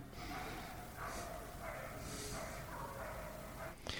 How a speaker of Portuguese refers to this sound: é a Lana batendo boca com o cachorro chato do vizinho